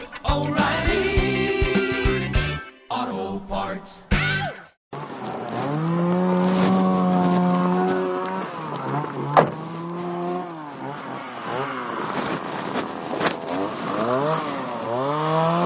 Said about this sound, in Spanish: bueno, estamos aquí en el monte cogiendo leña de encina. Y bueno, como puedes observar, como puedes escuchar, estamos aquí con la motosierra descombrando no estamos talando ningún árbol. Pero es simplemente desbroce,